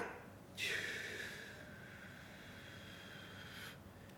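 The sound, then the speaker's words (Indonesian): A short silence while a person holds their breath, then a sudden forceful exhale as they simulate calming anger, trailing into a long, steady breathy rush lasting about three seconds before cutting off, with no talking. “Ternyata tuh aku gini nih. Ada yang ketahan napas tuh.”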